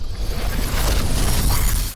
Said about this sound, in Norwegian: Så begynner hele bygården å vibrere. Han strekker ut handa og redder flaska før han hører en lyd som best kan beskrives som en bakvendt eksplosjon.